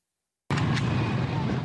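After a brief silence, gunfire from Hamas militants shooting toward houses during an attack on a kibbutz in Israel erupts abruptly, loud, followed by a continuous booming, rumbling din that carries on to the end.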